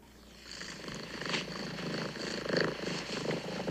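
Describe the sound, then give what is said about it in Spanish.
A cat purrs, a steady rumbling drone pulsing in a soft, even rhythm for a few seconds, with no voices over it. “Mira, aquí va, aquí va un purr.”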